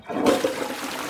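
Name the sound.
toilet flushing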